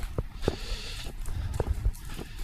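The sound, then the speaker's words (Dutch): Footsteps crunch along outdoors at an unhurried walking pace as people walk back to their bicycles at the back of Frankendaal, each step a distinct thud, with a low wind rumble and faint background noise and no one speaking. “Dus we lopen nu weer eh, terug naar de fietsen.”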